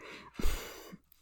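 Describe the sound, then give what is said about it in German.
A cat named Ruby batting at a sheet of paper: a brief, soft crinkle and rustle with a dull thump, heard faintly with no one talking. “Und du kennst das wahrscheinlich, wenn du jetzt im Hintergrund hörst, dann ist das mal eine Ruby, die mit einem Blatt Papier spielt.”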